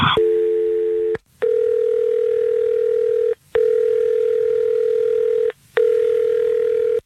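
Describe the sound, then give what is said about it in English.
A phone line dial tone briefly, then three long steady ringback tones separated by short silences, clear as the call rings through. No one speaks. “Well, yeah, let's, let's call him now.”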